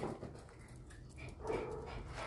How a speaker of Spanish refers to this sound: No sé por qué mi perra está tan emocionada de ir al baño eso pasa cuando se siente mal. No es hora de ir al baño, ya había ido. Pero mm, me está pidiendo ir al baño, así que...